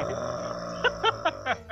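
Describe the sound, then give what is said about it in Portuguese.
A voice imitates loud snoring coming from inside a room behind a door: a continuous low, rumbling drone broken by five quick, rough snorting bursts in a steady rhythm. “Vocês já ouvem um ronco lá, lá de dentro.”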